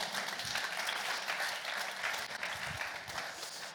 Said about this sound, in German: Wolltest du klatschen? Darfst du gerne machen. Und der Rest auch.